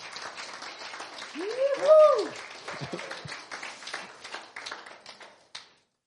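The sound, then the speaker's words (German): A crowd applauds the Lord steadily for several seconds at a worship gathering, dense clapping filling the space, with a few voices cheering or calling out over it before the applause fades away. “Und wenn du dann Amen drauf hast, dann sag einfach Amen und dann gib dem Herrn mal nochmal einen richtigen Applaus.”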